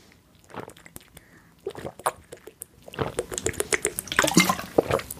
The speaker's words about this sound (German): So, wir trinken alle mal einen Schluck